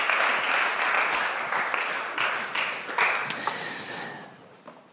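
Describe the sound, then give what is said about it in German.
An audience applauds steadily, a dense wash of many hands clapping at once that gradually thins and fades out over a few seconds, with a few last scattered claps at the end. “Gebt ihnen noch einen Applaus.”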